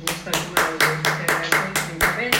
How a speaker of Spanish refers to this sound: un aplauso a esa querida profesora.